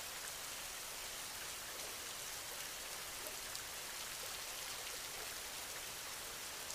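Steady rain falls in a continuous, even hiss with fine patter of drops, soft and unchanging throughout, with no voices or other sounds.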